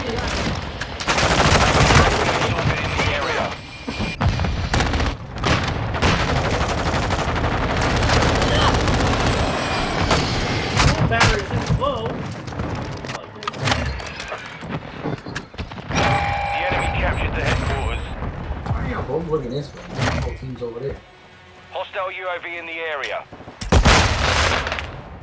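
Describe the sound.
Dense, rapid bursts of video game machine gun fire rattle almost nonstop, loud and cluttered with booms and thuds, while voices talk over the chaotic battle sounds.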